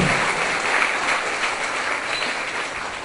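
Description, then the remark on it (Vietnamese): A group of children applauding together at their teacher's request, a steady wash of dense, bright clapping that holds at an even level for about three seconds with no voices over it. “và trong các cháu có thích vậy không nếu thích thì hãy cho tràng pháo tay để quan minh chính mình”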